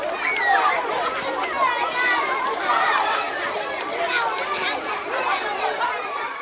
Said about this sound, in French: Ce son, c'était celui d'enfants qui jouent dans une cour de récréation.